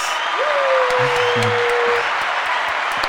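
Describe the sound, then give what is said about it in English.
An audience claps steadily throughout to welcome a guest onto the show, a dense, even wash of applause at constant loudness, with a single drawn-out cheer rising above it and some low murmuring underneath. “Let me give him a round of applause.”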